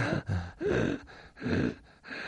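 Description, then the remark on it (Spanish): A voice imitates quick, shallow gasping breaths, about five short airy intakes in a steady rhythm, moderately loud with no speech, imitating breathing with lungs working at a third of their usual volume. “Bueno, nunca utilizamos todo el volumen, pero en vez de utilizar el volumen habitual, eh, funcionarían con un tercio del volumen. Con lo cual, el, el sonido es...”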